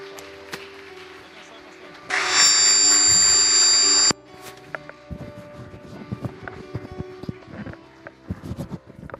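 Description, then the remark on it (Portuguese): A church audience applauds God, breaking into loud, dense applause for about two seconds, then it drops away into scattered, uneven clapping and murmuring voices. “Dá para melhorar esse aplauso porque Glória a Deus.”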